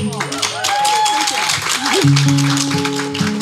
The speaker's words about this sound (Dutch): Oké, nog een keer, poging 2. Nog een applaus.